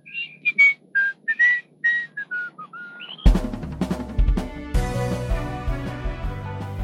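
A father striding off whistles a merry tune in short, bouncing notes that rise and fall for about three seconds, then a full instrumental music track starts and takes over.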